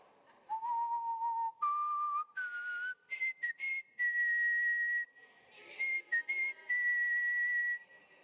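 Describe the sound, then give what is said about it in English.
A person whistles a short tune alone, clear, the pitch stepping upward across a series of held and quick notes with brief pauses between phrases. “I'm going to whistle or attempt to whistle a song, and you're going to tell me what the lyrics to that song are, all right?”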